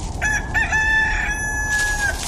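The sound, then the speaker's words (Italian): A rooster crows once, a long drawn-out call that holds steady for nearly two seconds over a low, steady background rumble, sounding clear. “ma è l'alba, eh sì, è l'alba perché sento anche una sorta di, co- di canto di gallo, non so che succede”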